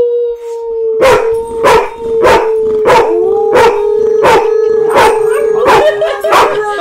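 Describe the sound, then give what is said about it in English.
A terrier barks sharply about nine times in a steady rhythm, roughly once a second, while a sustained, even-pitched howl runs continuously underneath the whole time. “That's yeah. the terrier starting.”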